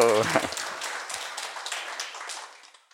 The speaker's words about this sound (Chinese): 我们热烈掌声欢迎我们的师傅。